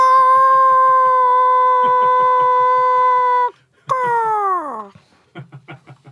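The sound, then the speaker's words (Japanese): A rooster crow slowed way down: a long, deep, droning call, a short pause, then a second call that sags downward, with low rhythmic thumps pulsing underneath. “鶏の鳴き声がスローこけこ”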